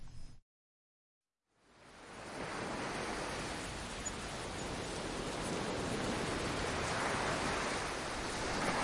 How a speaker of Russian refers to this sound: За такими глубокими мыслями на берегу моря мужчин и застал обещанный прогнозом дождь.